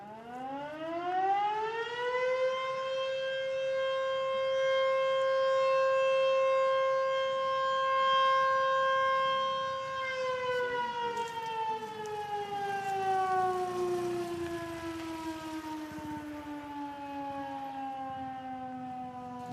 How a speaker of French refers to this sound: un peu donc ça donnait le début, oui, le, milieu, la fin des journées. Et c'est toute la ville qui en profitait. Oui, c'est toute la ville qui en profitait. Hein et tout le monde suivait cette sirène.